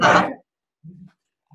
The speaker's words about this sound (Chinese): 你家的小狗狗也在凑热闹。